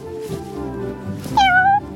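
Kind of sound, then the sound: animal, cat meowing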